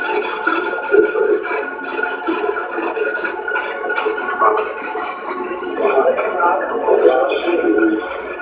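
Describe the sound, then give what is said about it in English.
Continuous crackling radio static from a spirit box sweeping through stations, choppy and fluttering, with garbled voice-like fragments flickering in and out at a steady, moderately loud level. “spirit box.”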